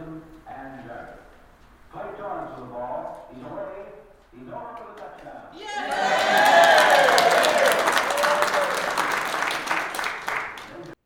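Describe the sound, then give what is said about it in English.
A voice speaks for a few seconds, then an audience in a library, watching a tape of a game played 70 years ago, bursts into loud, sustained cheering and clapping as Lynchburg scores, holding steady for about five seconds before cutting off. “So before we played the tape, I told people this is a library, but you cheer as loud as you want when Lynchburg scores.”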